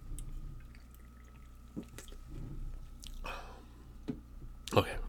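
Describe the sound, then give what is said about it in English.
A quick slurping sip of red wine from a cup, followed shortly by a brief wet click or gulp, against a faint steady hum and scattered small noises. “Um, one more sip, please.”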